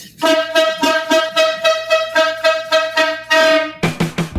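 A car horn honks in a rapid run of short, loud blasts at one steady pitch, with no talking, then ends in a final burst of quicker honks.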